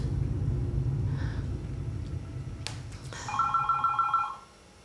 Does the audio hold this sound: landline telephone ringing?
yes